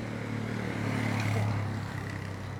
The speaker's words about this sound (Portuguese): Eu tenho mais frio na barriga quando é moto. É. Moto, nossa tem, vindo, senhora. Vai, tem vindo uma moto